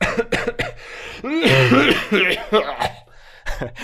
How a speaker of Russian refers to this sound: Это кашель. Да, я что делаю? Я кашлю сейчас.